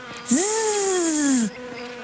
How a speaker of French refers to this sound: Granny s'arrête devant le grand champ de lavande. Elle fait remarquer à Zelda le nombre impressionnant d'abeilles au travail.